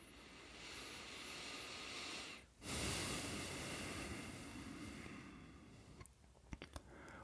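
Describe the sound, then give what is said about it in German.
Slow, deliberate deep breathing in and out: a long airy inhale, a brief pause, then a long, forceful rushing exhale, followed by a few soft clicks and mouth noises. No one speaks. “Ja, und bevor wir damit anfangen, gehen wir natürlich wieder ein bisschen kurz in die mentale Ebene hinein und nehmen erstmal uns einen Moment Zeit zum Ankommen, Dafür schnaufen wir mal tief ein und aus, ganz bewusst machen wir das.”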